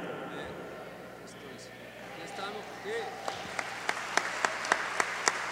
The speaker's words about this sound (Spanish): Dale un fuerte aplauso a, nuestro Rey, a nuestro Señor.